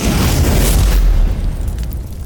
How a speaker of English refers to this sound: The explosion from the flashover blasted off the doors to the casino entirely, which flooded the room with fresh oxygen for the fire to feed on.